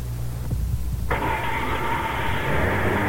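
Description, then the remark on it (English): A car driven by a man, its engine rumbling steadily, then about a second in a louder, higher whining roar kicks in and holds, as if the vehicle is accelerating. No one speaks. “Twenty years ago, the man driving that car couldn't even stand up.”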